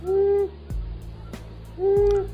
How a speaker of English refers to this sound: And our bird doesn't just bark, the male also vocalizes with a hooting sound that can be heard more than a mile away. Asio otus the long eared owl.